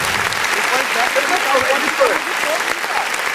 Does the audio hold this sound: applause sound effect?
yes